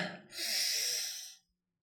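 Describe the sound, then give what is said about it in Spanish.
A single deep breath, a long airy inhale swelling over about a second and fading out, taken during a guided breathing exercise, with no talking. “Te voy a pedir que tomes una respiración profunda.”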